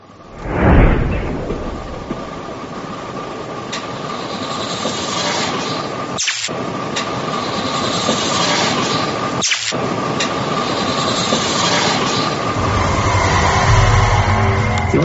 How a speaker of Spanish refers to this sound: Puedes oír el ruido blanco y es fuerte, ¿no?